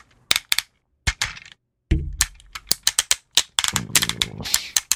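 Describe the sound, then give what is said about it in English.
A Tobot toy robot's ratcheting joints click sharply, in irregular bursts of rapid snaps with brief pauses, mixed with low handling rumble as the parts are moved. “every joint basically is like yeah. that good stuff. That that was the arm.”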